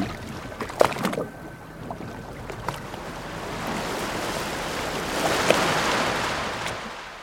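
A rickety refugee boat travelling from Lampedusa to the Thames moves across choppy sea, with a steady wash of waves and water splashing against the hull, a few sharp knocks early on, and the surge of water swelling louder toward the end.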